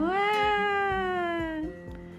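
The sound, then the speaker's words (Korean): A single long, drawn-out cat meow, loud and tonal, sliding gently downward in pitch before fading, over faint steady low thumps in the background. “그런데 고낭이가 그만 베개를 뻥 터뜨렸어요.”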